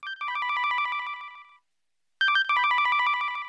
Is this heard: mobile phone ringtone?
yes